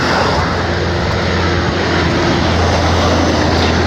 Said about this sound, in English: I swear to God, these rattly trucks, and there's no reason for it that I can think of. Like this particular street, I can't think of a reason why there have been non-stop rattly trucks. Like one of them was carrying logs,